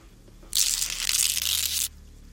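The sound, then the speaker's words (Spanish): Claws scratch across a large glass window in one harsh, hissing scrape of over a second, loud, with no voices, beginning and ending abruptly against a quiet background. “Eran como garras arañando el ventanal obligándome a cerrar los ojos y protegerme tras las ropas, comenzando en forma desesperada a rezar las escasas oraciones que sabía.”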